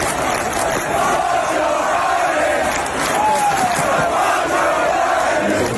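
A large crowd at a big American sports event chants against Joe Biden in unison, a loud, steady roar of many voices with rhythmic shouted phrases repeating over a dense background of cheering.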